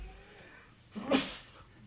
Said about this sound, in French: À tes souhaits. non, mais normalement, on l'a pas entendu.